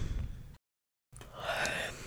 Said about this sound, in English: Okay, I always fucking yawn.